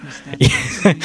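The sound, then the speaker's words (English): A voice imitates a squeezy dog toy, like a pig dog toy, deflating as air passes through it, making two short, breathy grunting groans, like air being pushed out of rubber. “There's little sort of squeezy dog toys, and when they decompress, um, like the, the air passes through them and it goes like, oh”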